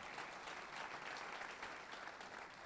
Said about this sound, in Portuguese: Dê um aplauso ao Senhor por isso, querido. Aleluia, aleluia.